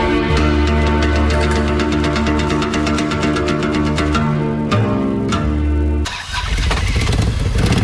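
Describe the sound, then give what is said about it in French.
A Harley-Davidson 1800 cc touring motorcycle, the biggest Harley model, rumbles loudly with a deep, steady throb, then shifts abruptly to a rougher, noisier roar near the end. No one speaks. “c'est la plus grosse moto de chez Harley, donc c'est vraiment ce qu'on appelle une version touring.”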